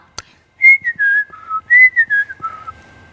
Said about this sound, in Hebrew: אחר כך היא שמעה מישהו שורק לעצמו מנגינה שמחה.